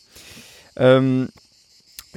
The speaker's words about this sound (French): On entend les cigales en arrière-plan, c'est assez sympa.